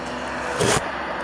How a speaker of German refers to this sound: ah, guck mal, ein grünes Auto, ein schwarzes, ein. Nein, okay. ah nee, das lassen wir lieber. Äh, ich hoffe mal, das ist jetzt zu laut, dass ihr nur die Autos hört.